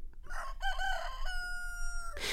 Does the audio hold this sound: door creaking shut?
no